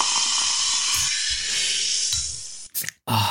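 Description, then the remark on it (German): A steady hiss of escaping gas as a bottle of Erzquell Siegerländer premium pilsner beer is opened runs for a couple of seconds, then breaks into a few short, sharp bursts of noise. “Ich muss, ich muss hier, ich muss hier das Getränk öffnen und Warte.”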